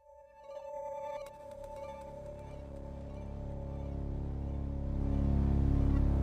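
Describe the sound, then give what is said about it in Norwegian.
Eerie, droning horror film theme music with sustained tones and a deep rumble that slowly swells louder, building an ominous, unsettling atmosphere with no voices. “Det var jo ganske vanskelig egentlig å finne ukas filmlåt. Det var jo, altså, mm. Skrekkfilmer har jo som regel bare, som, som du sier, lyder.”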